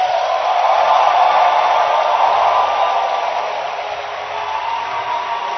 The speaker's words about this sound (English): And I want us with a louder hand clap to celebrate his life.